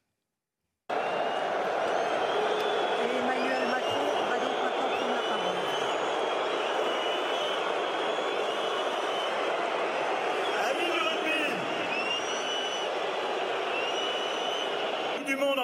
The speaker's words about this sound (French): Emmanuel Macron a été copieusement sifflé euh, au Stade de France lors de son discours d'ouverture. On l'écoute et on commente ensemble parce que cela fait polémique.